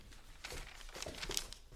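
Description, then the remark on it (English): Soft crinkling and rustling of a paper of written decrees being handled and unfolded to be read, with a few brief crisp crackles, quiet overall and with no voices. “Give me the paper, let me read the same, and to these strict decrees I'll write my name.”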